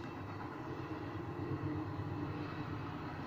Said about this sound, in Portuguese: Ai, desculpem o comboio, vamos ouvir o comboio. Obrigado, comboio. Isto é dos grandes.